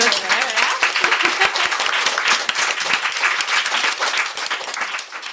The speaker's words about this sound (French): merci beaucoup. bah, je pense qu'on peut tous s'applaudir.